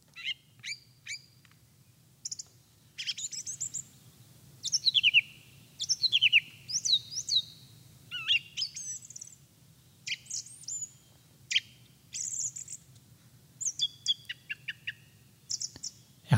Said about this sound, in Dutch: Een hele mooie zanger, de zanglijster. Nou, daar heb ik een heel mooi geluid van.